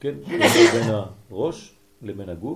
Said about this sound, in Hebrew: בריאות